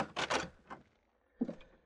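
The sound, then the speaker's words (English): A door opens with a few quick clunks and rattles, then a brief pause before a final thud, all fairly quiet with no voices. “Shut the door.”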